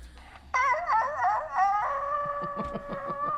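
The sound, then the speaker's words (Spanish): A person imitates a coyote howl: a loud, high, wavering cry that rises and falls for about three seconds, ending in a steadier held note over choppy, pulsing yelps. “manden su aullido de coyote como este que seguramente está por ahí”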